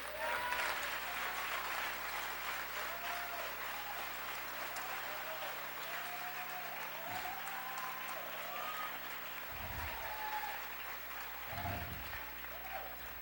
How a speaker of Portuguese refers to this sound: Pode aplaudir o Senhor, querido, não tenha vergonha.